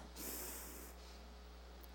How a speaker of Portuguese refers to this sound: Respira fundo aí, dá uma respirada assim, ó.